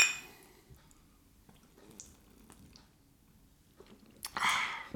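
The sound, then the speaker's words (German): Quiet sipping and swallowing sounds of someone drinking beer after a toast, with soft wet clicks, ending in a short breathy burst like a satisfied exhale. “Oh, darauf erstmal ein Bier. Darauf erstmal ein Bier. Prost!”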